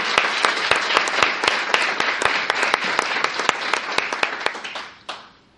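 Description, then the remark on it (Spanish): A crowd bursts into steady applause, many hands clapping densely with a few sharp standout claps, sustained for about five seconds before quickly tapering off at the end. “Ayúdenme regalándoles un fuerte aplauso a ellos, por favor.”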